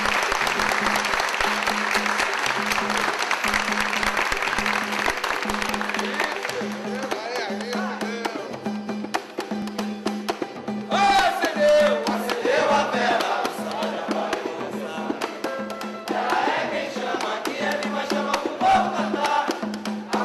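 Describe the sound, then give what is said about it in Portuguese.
An audience at the Samba da Vela samba gathering bursts into loud, sustained applause for the candle, a dense wash of clapping for several seconds, then it thins into scattered claps mixed with cheers and excited voices from the crowd. “Uma salva de palmas pra vela, gente!”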